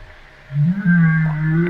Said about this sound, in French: Ça, c'est une baleine qui parle.